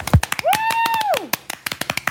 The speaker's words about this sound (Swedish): Kan man få Helt liten spontan applåd?